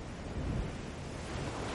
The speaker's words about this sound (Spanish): Ven. Las olas rompen. Sucumbe, ven, da un paso al frente. El salitre hechizando el aire, ven. El mar tejiendo su telaraña de espuma entre las rocas negras.